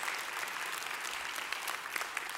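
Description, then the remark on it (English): An audience applauds steadily in praise of God, a dense wash of many hands clapping at once, without pause and without any voices rising above it. “Come on, somebody give God some praise up in the house.”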